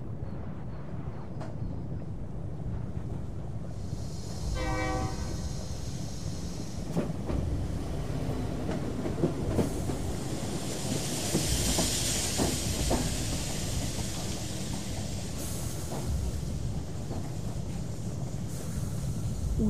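A train sits at the central railway station in the capital, where another group of refugees from the suburbs arrived on the morning of 10 March. A short horn blast sounds near the start, then a loud, steady hiss of steam with scattered metallic clanks and rumbles, and no one speaking.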